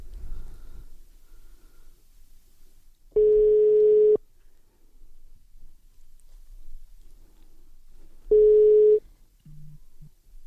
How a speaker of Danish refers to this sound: Ringer vi op nu? Skal vi prøve? Ja, Lad os prøve. prøve bare fyr. Vi ringer.